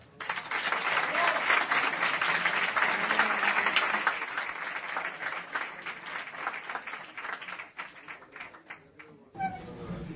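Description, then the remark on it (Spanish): A crowd applauds with dense, sustained clapping that starts loud and gradually thins out over several seconds, before a voice begins speaking at the very end. “Aplauso”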